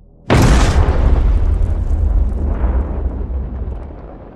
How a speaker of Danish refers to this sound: Pludselig snublede han over noget og landede på fortorvet. Det blev hans held, for sekunder efter eksploderede en håndgranat i nærheden af Ott.